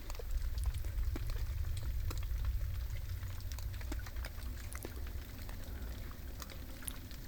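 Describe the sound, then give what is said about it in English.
Decapod crustaceans, the group including crayfish, crabs and lobsters, crackle nonstop underwater, a dense, irregular patter of sharp little snaps like frying fat, layered over a steady low rumble with no pauses or voices. “They're a uh, group of crustaceans with uh, 10 feet or ten footed, or decapoda, including uh, crayfish, crabs, lobsters,”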